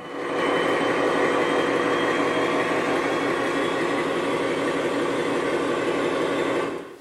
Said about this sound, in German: Während unseres Rundganges wollen wir für kurze Zeit auch akustisch eintauchen in die Atmosphäre eines U-Boot-Einsatzes im Zweiten Weltkrieg. Es ist Winter. Boot im Nordatlantik bei Überwasserfahrt. Starker Seegang, die Diesel hämmern.